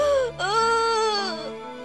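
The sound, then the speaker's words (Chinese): A voice imitates the story character Silly Wolf (笨狼) crying loudly while sitting on the grass because its tail is gone: one long, wailing sob with a brief catch near the start, then a sustained moaning tone that wavers in pitch and slowly trails off. “笨狼坐在草地上，大声的哭，它的哭声那么大，仅仅哭了一声。”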